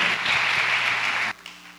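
A church audience claps for a pastor in a dense, steady wash of applause for over a second, then it cuts off abruptly, leaving only a faint low hum and a stray clap or two.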